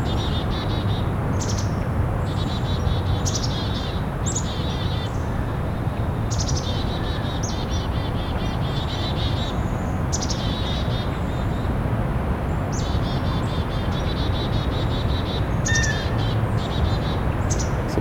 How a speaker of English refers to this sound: Chickadees are pretty worked up about something, though. Might just be the warm weather and the wind. Gonna have to be more vocal to be heard.